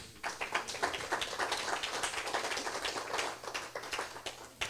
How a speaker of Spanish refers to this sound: Dale un aplauso a Dios.